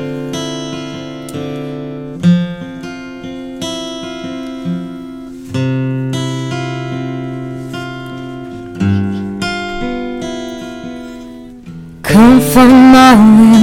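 A pop-rock song intro played live by a band at the Buisson Pop festival in Bois d'Ouin, with sustained, ringing guitar chords that change every couple of seconds, fairly loud and steady, before a singing voice comes in over the music at the end.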